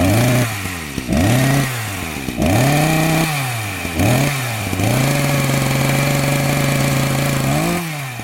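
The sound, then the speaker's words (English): A small two-stroke chainsaw engine revs up and down repeatedly, its pitch rising and falling in loud bursts before settling into a steady high whine, with no voices. “Three past 11 here on SENZ, and that sound can only mean one thing. The chainsaw is back on air.”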